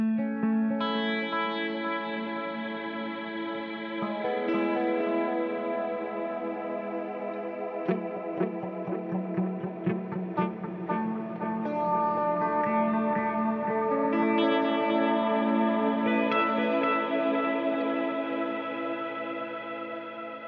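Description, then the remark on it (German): Sustained guitar chords drenched in reverb and delay, changing every few seconds with a brief rhythmic strummed passage in the middle, the notes washing and lingering into a long shimmering tail. “schnell, da klingt einiges nach, also ja. sowohl vom Hall als auch von dem, von dem Delay.”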